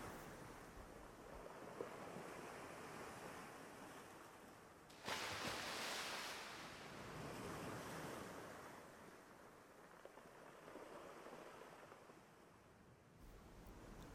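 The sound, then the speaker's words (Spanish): Ocean waves wash steadily onto a beach, with a louder surge of breaking surf about five seconds in, then a continuous rolling rush and some wind noise, no voices. “Y acepto el baile con las olas del mar.”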